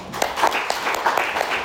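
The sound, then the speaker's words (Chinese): A crowd applauds the company for its charitable donations, a steady, dense, even patter of many hands clapping at once with a few sharper claps poking through. No one speaks over it. “我们再次把掌声送给公司。”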